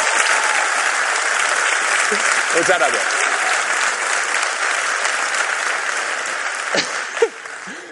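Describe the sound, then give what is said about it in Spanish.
Steady audience applause fills the whole stretch, a dense wash of many hands clapping at even loudness, with a brief spoken thank-you from a voice partway through and near the end. “Aplauso solitario. Podéis acompañarlo, por favor.”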